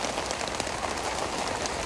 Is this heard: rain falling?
yes